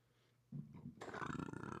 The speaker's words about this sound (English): That was a that was a, uh, a belch from uh, carbonated alcohol squeezer.